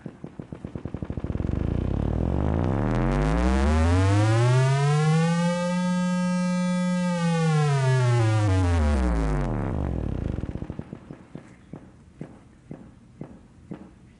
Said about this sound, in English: So once a rhythm starts happening more than about 20 times per second, your brain flips. It stops hearing it as a rhythm and starts hearing it as a pitch.